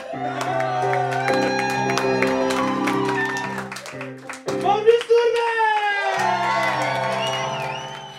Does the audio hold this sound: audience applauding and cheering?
yes